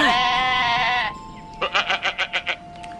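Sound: goat bleating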